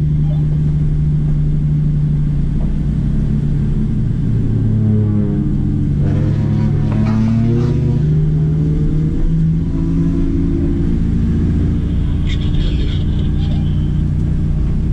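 A loud car engine rumbles steadily, then revs up and down several times in the middle before settling back into a deep idle.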